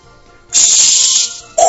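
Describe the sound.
A voice imitates a Shinkansen bullet train toilet flush, like a Nakagawa-ke comedy routine: a loud, sustained breathy hiss lasting under a second, a brief pause, then a second sharp burst with a hollow, lower tone.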